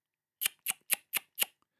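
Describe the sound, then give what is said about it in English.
Five sharp tongue clicks of the tut-tut kind, the C click or shame click, made with the tongue tip at the front of the mouth, evenly spaced in a quick steady rhythm, each crisp and bright with a fast decay, with no talking around them. “the C click. This is known as the shame click.”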